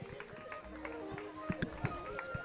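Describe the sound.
An audience applauds, a steady patter of many hands clapping with a few sharper claps standing out, while murmuring voices carry on underneath.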